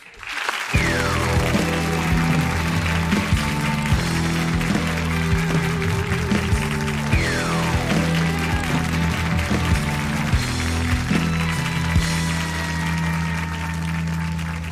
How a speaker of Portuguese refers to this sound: Aplaudam o designer